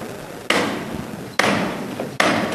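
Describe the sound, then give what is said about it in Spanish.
Three loud, sharp hammer knocks on a wooden processional float bearing a cross, sounding the first call, spaced about a second apart, each ringing out with a long echoing decay in a reverberant space. “con el martillo vamos a escuchar esta primera llamada.”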